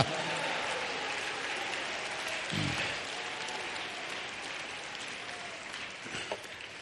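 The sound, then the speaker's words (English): An audience claps their hands in praise of God in a steady, dense wash of applause that holds at an even level throughout, with a few slightly louder bursts standing out from the crowd. “Oh, come on, clap your hands, praise Him.”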